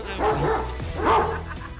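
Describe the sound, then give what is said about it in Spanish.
A dog barks twice, moderately loud, with two full-throated woofs spaced about a second apart and no talking over them. “Échale al perro.”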